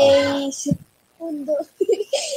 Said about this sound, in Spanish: es que es mi sobrino que está gritando. lo escuchamos y lo entendemos.